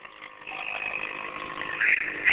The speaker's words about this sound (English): Sorry, a motorcycle just rode by, and it was the loudest thing I've ever heard. In my oh, life.